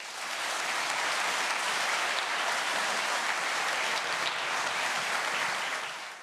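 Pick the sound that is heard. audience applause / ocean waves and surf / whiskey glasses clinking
audience applause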